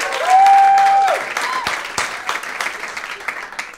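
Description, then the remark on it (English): Sparse, polite golf claps from a debate audience, a handful of people clapping briefly to show support for one side, with a whistle or cheer at the start that fades into scattered claps. “Golf claps. You got a few.”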